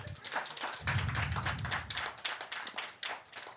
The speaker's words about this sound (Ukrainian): Ой, я люблю цю тему. Будь ласка, плескайте, це гарна тема.